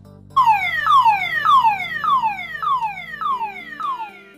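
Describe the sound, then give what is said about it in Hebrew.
A siren on the FBI agents' black Chevrolet starts abruptly as the car pulls away, wailing in a fast, repeating pattern of falling sweeps, about seven in a row, loud and steady with no voices over it. “המעריצים שעמדו כדרך קבע מחוץ לבניין נדהמו כשראו אותו מובל באזיקים אל תוך רכב השברולט השחור שמיד הפעיל את הצ'קלקה והסתלק במקום.”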